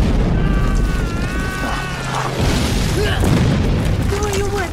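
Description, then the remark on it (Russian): Heavy explosions from bombs dropped by passing aircraft on a trench rumble continuously, a dense, booming roar with debris-like crackle of earth thrown up by the blasts throughout, while faint tonal voices or cries rise briefly above the din. “На лежащих на дне окопа парней сыплется поднятые взрывами земля.”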